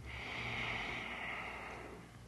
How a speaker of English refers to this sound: Apartment five, loud, juicy snoring.